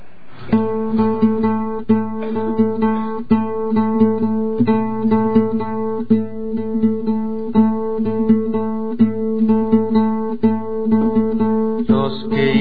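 An instrumental musical introduction to a sung setting of a poem plays with sustained, harmonically rich chords and a steady pulsing rhythm, fairly loud, with no singing or talking yet.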